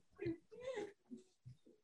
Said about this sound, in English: oh, it's the dog.